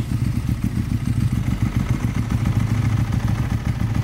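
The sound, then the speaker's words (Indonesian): A motorcycle engine runs steadily, a loud low rumble with a rapid, pulsing rhythm and faint rattling, holding at a constant idle throughout with no voices. “Motor udah pakai karo Mas Baim kuwi, Pak.”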